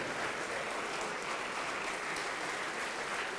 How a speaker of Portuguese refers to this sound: Vem, vem todos que ergueram as mãos, venham e vamos aplaudir ao Senhor por cada vida que está chegando.